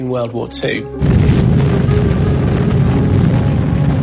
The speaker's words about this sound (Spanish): 16 de julio de 1945 en el desierto de Jornada del Muerto, en Nuevo México. Cuando la bomba Trinity fue detonada, liberó el equivalente a 21.000 toneladas de TNT, un poco menos que la bomba nuclear lanzada sobre Hiroshima en la Segunda Guerra Mundial.